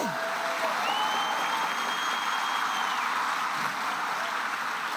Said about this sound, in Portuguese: Alguém aplauda o Senhor por isso aqui.